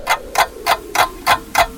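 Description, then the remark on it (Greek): A clock ticks steadily, six crisp, evenly spaced ticks about three per second, clear with no voices over them. “Είναι σαν να σταματάς το ρολόι σου νομίζοντας και ότι ο χρόνος σταματά.”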